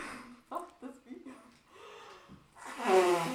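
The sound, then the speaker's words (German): After a few seconds of muffled talking, a loud, forceful nose blow bursts in near the end, a harsh honking rush of air. “Wir hören uns erstmal deinen Schneuz an.”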